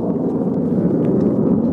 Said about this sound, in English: Oh, I tell you what it is, I can see them now. It's fighter jets or at least not commercial planes.